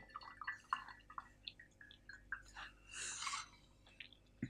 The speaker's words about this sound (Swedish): Nu häller jag upp te här.